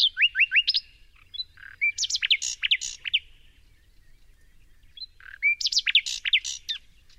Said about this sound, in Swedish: Så att eh, det är britternas Näktergal som sjunger så fint. Kan vi inte lyssna på den också?